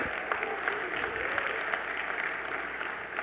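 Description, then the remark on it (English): A large church service crowd, the first second service, claps steadily for itself, the dense applause holding at an even level for a few seconds with no one speaking. “Well, you are the, uh, the first official inaugural second service crowd. So uh, give yourself a hand.”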